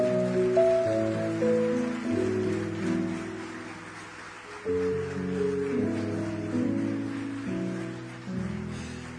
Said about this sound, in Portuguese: Se você pode e entende o que eu estou falando, que o nome de Jesus é acima de todas as coisas, eu queria que você aplaudisse o nome de Jesus, por favor.